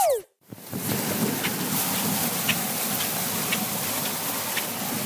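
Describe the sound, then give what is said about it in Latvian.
Raincoats rustle in steady rain, a dense, continuous patter and swish with occasional sharper drips, starting after a brief swish and a moment of silence. No one speaks. “Čauksta lietus mēteļi.”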